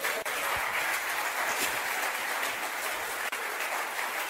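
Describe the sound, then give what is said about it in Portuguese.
An audience applauds Jesus steadily, a dense wash of many hands clapping at an even, sustained loudness with no pauses and no voices standing out. “Pode aplaudir Jesus.”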